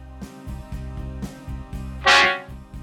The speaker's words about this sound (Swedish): Du har kommit till Hasse Tellemars dödsbo. Telefonsvarare. Hör av er efter dragspelet.